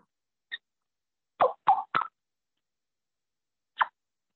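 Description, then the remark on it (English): A handmade turkey trumpet call, played by kissing on it, sounds a few short, clucking yelps: one isolated note, a quick run of three, then a final lone note, with silence in between. “Um, now these are are, are kind of called what's called a trumpet call.”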